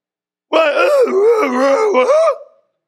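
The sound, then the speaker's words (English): A person imitates a zombie with a long, drawn-out vocal groan lasting about two seconds, wavering in pitch before trailing off, loud with no other sounds around it. “We're all like zombies for crying out loud.”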